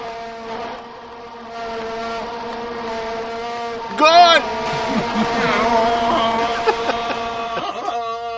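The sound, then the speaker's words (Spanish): A steady, droning buzz of vuvuzela horns, as used by fans at the World Cup in South Africa, holds one low pitch with rich overtones throughout, swelling in a brief louder burst midway, while a voice calls out over the din. “así es que ellos aplauden con la bubucela esa.”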